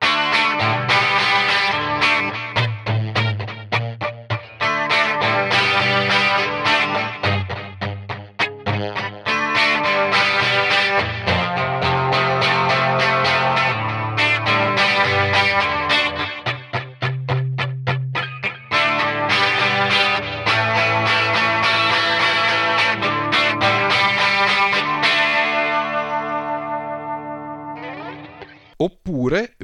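A distorted electric guitar played through amp emulation, chugging rhythmic chords with a gritty, saturated tone and a touch of chorus and echo, loud and steady before the final chords ring out.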